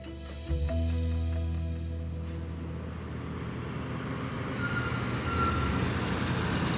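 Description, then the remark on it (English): A UPS delivery truck's heavy engine rumbles as it pulls in to the UPS warehouse in Cleveland, Ohio, in 1973, a deep steady drone that swells slightly, with faint mechanical whine above and no voices. “A delivery truck driver named Mike has just returned to the UPS warehouse after a long shift.”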